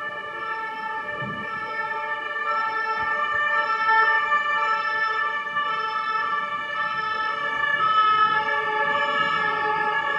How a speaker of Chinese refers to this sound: 为什么今天那么多救护车？